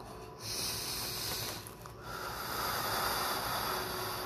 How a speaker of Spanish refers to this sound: Respiración número 33. Inhale, exhale.